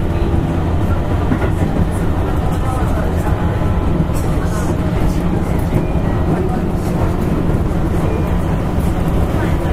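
A Keihan 6000 series express train running on its route from Hirakatashi to Gion-Shijo, near Tambabashi station, a loud, steady roar of deep rumbling with continuous rattling and faint rhythmic clacking that holds an even level for the whole stretch.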